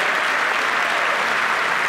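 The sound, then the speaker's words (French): Steady audience applause, a dense, even wash of many hands clapping at a constant loudness throughout, with no voices standing out above it. “Donc euh, gros applaudissements pour Michael.”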